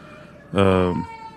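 A baby in an airport lets out one short, loud wail lasting about half a second, rising above a steady low background hum.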